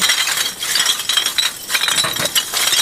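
Hundreds of glass bottles clink and rattle against each other in a waste bin set up for divers, a steady jumble of bright, overlapping knocks and chinks with no voices.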